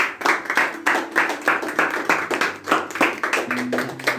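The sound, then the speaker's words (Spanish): A small group claps steadily for about four seconds in applause for the women present, the claps landing in a loose, fairly even rhythm at moderate loudness, with a faint low hum underneath. “Yo como mujer siempre hago hincapié en las chicas, así que voy a pedir un aplauso para las mujeres presentes aquí.”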